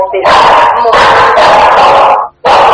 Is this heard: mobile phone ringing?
no